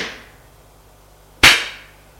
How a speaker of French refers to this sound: Il donne une gifle.